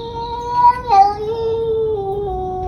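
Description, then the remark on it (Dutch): A pet cat that is bullied by neighbourhood cats lets out a long, drawn-out yowl with a wavering pitch that dips and rises, sustained for a few seconds with no talking. “Dit is dus een kat. Ja, dat is fucking raar. Dit is een kat.”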